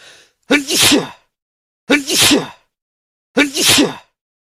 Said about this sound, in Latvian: Vasarā visapkārt viss zied un smaržo, un dažreiz smaržo tik stipri, ka jāšķauda.